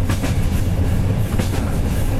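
A train winds its way onward along the rails, fairly loud, with a dense low-frequency roar and faint repeating clatter from the wheels. No one speaks.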